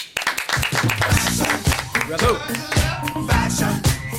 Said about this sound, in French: Euh, messieurs dames, merci d'applaudir notre spécialiste mode.